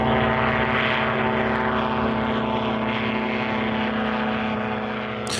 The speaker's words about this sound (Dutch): Ja, een propellervliegtuig, zo klinkt het een beetje. Dat klopt. Ja. Is ook dezelfde soort motor en zo? Ja, wij hebben twee, dat heet Rotax-motoren. Dat zijn wereldwijd bekende motoren.